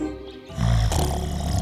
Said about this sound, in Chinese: 所以不管是绿巨人还是红巨人，这两个巨人打起呼来，哦，听起来很像打雷声那么样的大声